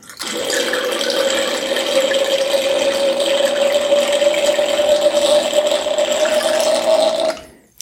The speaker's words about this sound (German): Ich schenke jetzt mal gleich nochmal ein nach mit dem Sofortdekanter.